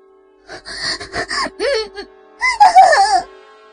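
A woman lets out a string of short, breathy moans, then a longer, louder wavering moan from deep in her throat that rises and falls in pitch before fading, during sex. No speech accompanies it.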